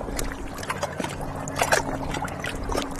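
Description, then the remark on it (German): Water of the Wakenitz river laps and gurgles in a steady wash, with small splashy ripples rising now and then over a faint low hum, on a sunny but cold day in late April. “Das ist die Wakenitz.”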